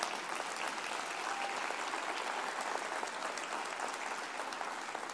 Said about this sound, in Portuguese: Quer aplaudir Jesus? Pode.